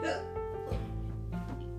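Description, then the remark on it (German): A voice imitates hiccups, making a few short, voiced hiccup sounds in quick, uneven succession with no other sounds around them. “Also immer wenn ich Schluck auf habe, mache ich.”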